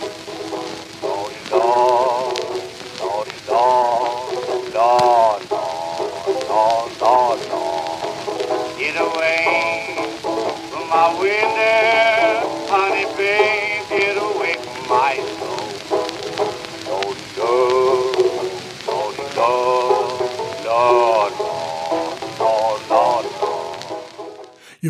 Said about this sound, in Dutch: Dat is een opname uit 1924. En dit is een zogenaamde ragtime blues, waarbij de banjo het ritme van de piano imiteert.